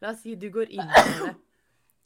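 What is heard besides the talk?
sneeze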